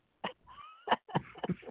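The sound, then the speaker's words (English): A few short, sharp coughs from a man who is sick with a cough, coming in a quick irregular series with a brief voiced wheezy sound between the first two. No one speaks. “uh oh, you've been coughing a lot.”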